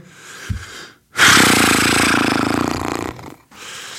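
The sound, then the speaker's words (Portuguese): A voice imitates a man huffing and snorting: a short puff, then one long, loud, rough blast of breath lasting about two seconds, followed by quieter breathy noise. “Ou seja, sempre ali, a bufar o bufar para mim é que me irrita, que é.”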